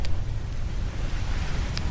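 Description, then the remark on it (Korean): Steady wind blows outdoors by the sea at Paengmok Port, a constant rushing roar with heavy low rumble and no pauses. No one speaks. “지금 바, 소리 들리시죠? 바깥에 저 사실은 자다가도 의식이 깰, 깰 때가 있잖아요.”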